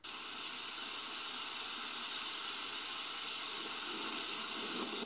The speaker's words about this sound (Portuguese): Isso mesmo, você acertou. É a chuva.